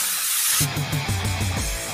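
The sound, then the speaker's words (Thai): A short, steady hiss of a blue can of Velloy Chain Lube aerosol chain lubricant spraying, fairly loud, lasting about half a second before giving way to pitched, tonal sounds. “สเปรย์น้ำมันฉีดโซ่คุณภาพสูงเวนลอยเชนลูปกระป๋องสีฟ้า ด้วยคุณสมบัติแทรกซึมลึกถึงก้านและข้อต่อ ช่วยให้ทนแรงดึงและแรงกระชากได้อย่างดีเยี่ยม”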